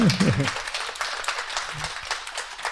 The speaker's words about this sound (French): On applaudit